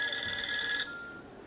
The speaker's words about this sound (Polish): Najmocniej przepraszam. Myślałem, że wyłączyłem ten telefon.